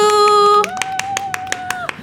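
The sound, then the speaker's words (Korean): A steady tone gives way to brisk, evenly spaced hand claps, about nine sharp smacks in quick rhythm, with a held tone humming softly beneath them; clapping at an open studio to congratulate a visitor on finishing the suneung college entrance exam. “어머 수능 고생했어요 박수.”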